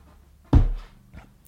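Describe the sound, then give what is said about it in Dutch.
A single heavy, dull thump of a head knocking against a tabletop, loud with a deep low boom, followed by a fainter knock a moment later. “Het, het, geluid van een hoofd op een tafel.”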